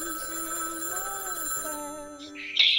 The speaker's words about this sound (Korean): 집에 전화가 울리는 거예요. 집에 전화 종소리가 울리는 거예요.